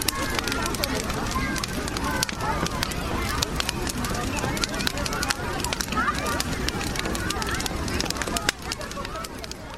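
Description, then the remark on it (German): A big bonfire lit by the fire brigade on St. Martin's Day crackles steadily, with frequent sharp pops and snaps over a dense roar, while a crowd murmurs and chatters in the background throughout. “Normalerweise löschen die Feuerwehrmänner ja das Feuer und einmal im Jahr an St. Martin, da zünden sie dann ein Feuer an und zwar ein richtig großes.”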